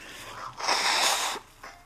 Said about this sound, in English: And as of right now, I gotta blow my nose because it's just really irritating me. I think I got a hair.